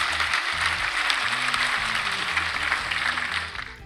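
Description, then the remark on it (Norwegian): Steady applause from a crowd, a dense crackle of many hands clapping at once that holds loud and even for several seconds before starting to taper off at the end. “Det er lenge siden du har hørt en ordentlig applaus”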